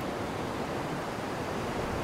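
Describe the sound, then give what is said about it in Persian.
A steady wash of sea surf rolling onto the shore under a cloudy sky with no rain, the waves piling over one another, a constant broad roar without distinct individual crashes, moderately loud, with no voices. “باران نمی بارید اما آسمان ابری بود موجهای دریا از سر و کول دیگر بالا رفته و به ساحل می ریختند.”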